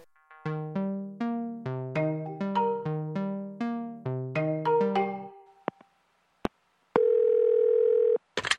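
A rapid melodic series of electronic phone tones as a call to a geographer is dialed, followed by a couple of short clicks and a steady sustained ringback tone near the end.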